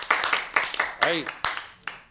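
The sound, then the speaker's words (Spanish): Scattered applause from a small programme audience welcoming guests from Fajas Salomé, a series of uneven claps, with a brief voice calling out partway through. “Un aplauso, un aplauso.”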